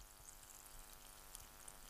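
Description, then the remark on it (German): Soft, steady fizzing of sparkling water held up to the microphone, a continuous bubbly hiss with a couple of tiny pops near the end and no voices. “Oh, mh, mm, hört man das, das Prickelnde?”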